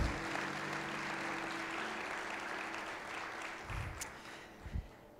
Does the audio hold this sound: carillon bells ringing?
no